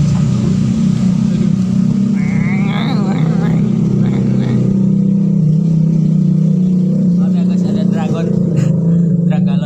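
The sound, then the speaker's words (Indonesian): A loud, rough engine with a noisy exhaust drones steadily in the middle of a road, its low rumble rising and falling slightly in pitch, with muffled voices faintly audible over it. “Anda ingin Anda ingin kenal pot berisik?”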